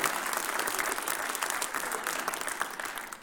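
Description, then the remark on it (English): A live audience claps steadily for a woman for a few seconds, the dense patter of many hands at a fairly even, moderate loudness with no voices on top. “Can you give her a round of applause?”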